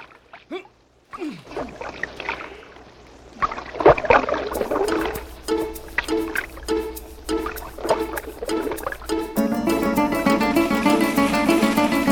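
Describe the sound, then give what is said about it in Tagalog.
Heavy splashes as fishing nets drop into water, several bursts in succession with sloshing and dripping between, followed by a swell of music toward the end. “Ihulog na mga lambat sa tubig!”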